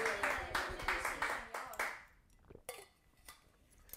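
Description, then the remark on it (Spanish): An audience gives a strong applause to the Lord, loud, dense clapping that rolls for about two seconds, then dies away quickly, leaving a few scattered claps and faint clatter. “Dale un aplauso fuerte y dile, Señor, enséñame a depender de ti.”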